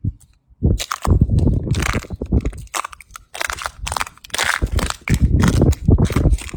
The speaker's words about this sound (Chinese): 非常好玩啊！我刚刚的话就一直在踩我们海滩上面这个整个蛤蜊的壳。其实这些蛤蜊的壳呢，实际上都是被海鸥啊吃掉的。它呢就整个摊在整个这个海滩上面。